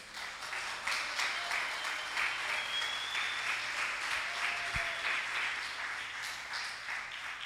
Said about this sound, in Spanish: Denle un aplauso al rey.